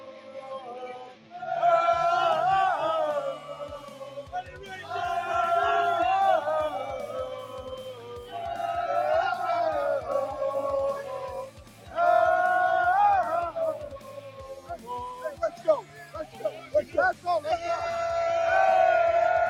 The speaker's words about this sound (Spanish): Por ahí mandó más fotos, pero bueno, aquí hizo la famosa porra de, de los Jets en el Lambo.